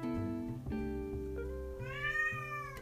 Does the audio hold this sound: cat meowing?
yes